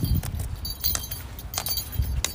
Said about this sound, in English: and this tapping noise is my cane.